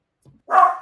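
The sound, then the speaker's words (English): A single sharp, loud bark from a pet dog after a faint low grumble, with no voices around it. “I can't say anything because my dog.”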